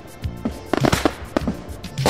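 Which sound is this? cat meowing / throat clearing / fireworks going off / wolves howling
fireworks going off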